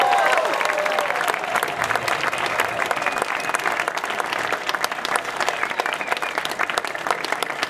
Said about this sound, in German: Und deswegen würde ich gerne von hier mal einen richtigen Applaus, einen richtig donnernden Applaus für die DGL in ganz Deutschland hören.